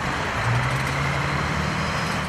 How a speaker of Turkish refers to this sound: İzmir'de de vardı sabah trafiği. Büyük şehirler yeni normalin ilk gününe hızlı bir giriş yaptı.